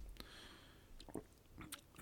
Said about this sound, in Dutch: Ehm, een slokje.